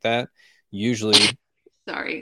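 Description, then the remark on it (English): A single sharp sneeze bursts out between bits of conversation, followed by a brief laugh and more talking. “Bless you.”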